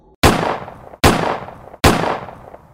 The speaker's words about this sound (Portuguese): Para minha quebra de expectativa, ao anunciar o assalto, o homem foi atingido por três disparos.